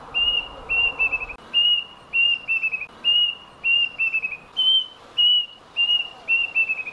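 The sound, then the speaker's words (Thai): A plaintive cuckoo calls repeatedly with clear, high whistled notes, some single and some quickly stuttered, in a steady rhythm of about a dozen phrases over faint background hiss. “คือนั่งสอบอยู่แล้วเหมือนแบบหน้าต่างนอกห้องสอบมันมีไอ้นกอีวาบตะกะแตนเนี่ยเกาะอยู่ แล้วมันก็ร้องไม่หยุดเลย”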